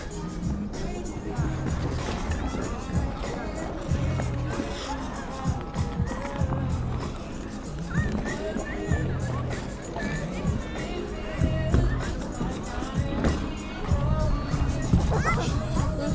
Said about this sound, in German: So, was ganz witzig ist, hier ist also in der Nähe vom Altermarkt auch noch eine Eisbahn aufgebaut. Nur im Winter. Mal hören.